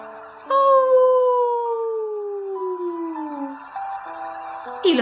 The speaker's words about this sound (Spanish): Los lobos aullan.